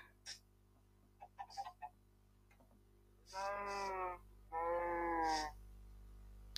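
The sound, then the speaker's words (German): After a few soft clicks and taps, a voice gives two drawn-out, cow-like moos in a row, each about a second long, steady in pitch and fairly loud against a quiet background. “Hör auf zu moon.”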